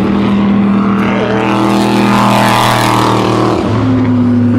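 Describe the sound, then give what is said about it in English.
Loud, steady roar of race car engines at the 2016 Le Mans race, the cars driving through mist on a damp track throwing up spray, their droning pitch holding and then dropping sharply near the end as a car passes, with no voices. “First look at the Mans 2016.”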